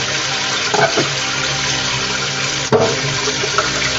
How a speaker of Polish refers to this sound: Dobra, muszę ten garnek napełnić najpierw wodą spłynę, żeby ten tłuszcz, troszeczkę cieplejszą wodę zrobię, żeby ten tłuszcz się rozpuścił.